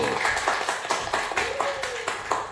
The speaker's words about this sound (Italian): E questo applauso lo teniamo perché sta per arrivare la rubrica che mi piace di più, le interviste impossibili.